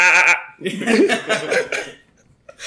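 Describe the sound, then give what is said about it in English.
A person imitates a bleating antelope with a short nasal cry, then a longer, wavering series of bleat-like bursts that blur into laughter. It is fairly loud. “and then demonstrations of antelope bleating.”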